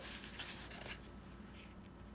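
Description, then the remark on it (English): A quiet papery rustle and scrape as a notebook page is turned, with a brief swish near the start over a steady low hum. “I'm gonna give me a turn, uh, a page turn here.”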